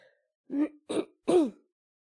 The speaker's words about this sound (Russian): У тебя кашель? Вот, и я... Э, это... Э, ну да, есть небольшой кашель.